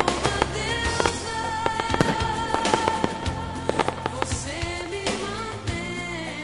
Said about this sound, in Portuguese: edição, vou botar até uns fogos de artifício.